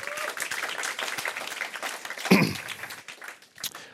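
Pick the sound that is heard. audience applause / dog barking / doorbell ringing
audience applause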